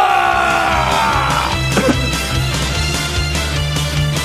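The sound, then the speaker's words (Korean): A loud, steady wash of audience applause mixed with shouts, whoops and cheering voices, sustained throughout with a low humming tone underneath. “여러분들의 뜨거운 박수와 문자 5초간 발사!”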